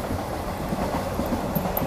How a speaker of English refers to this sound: As the train goes past.